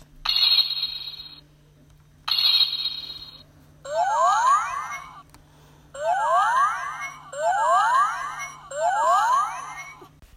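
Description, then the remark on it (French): A toy watch gives two short buzzy beeps, then plays a bright electronic chime melody that repeats four times, loud with no talking, over a faint steady hum. “Je vais vous faire écouter le son de ma montre magique.”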